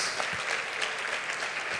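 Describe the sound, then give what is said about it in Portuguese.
An audience applauds the Messiah together, a dense, steady wash of many hands clapping at an even loudness throughout, with no pauses and no voices standing out. “Se tem alguém aqui decidido a mudar de vida, dê um aplauso bem forte ao Messias.”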